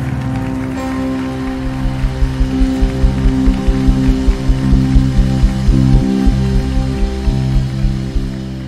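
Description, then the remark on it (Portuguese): An audience applauds for Jesus after a prayer, a dense, steady wash of clapping with faint rhythmic accents, running loud for the whole stretch over sustained low musical tones. “Será que você pode ocupar as mãos e aplaudir?”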